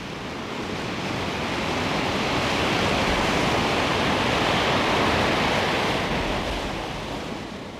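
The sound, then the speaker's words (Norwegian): Rough sea waves churn off Skagen as a ship goes full speed ahead, in a steady, broad roar that swells gently and fades slightly at the end, with no voices present. “Sjøen er blitt temmelig grov, og sjøsyken begynner å herje blant oss.”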